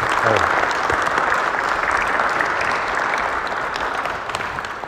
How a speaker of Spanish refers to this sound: Pues un aplauso a los padres.